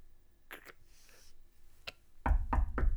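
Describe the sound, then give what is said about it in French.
Knocking on a closed door: a few soft, scattered raps, then three louder, quick knocks at the end, with no one speaking. “Mais vous tapez à la porte normalement, vous fermez la porte et vous, vous tapez.”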